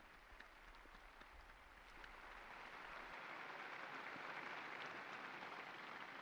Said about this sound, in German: Begrüßen wir ihn mit einem großen Applaus der neuen Seligen.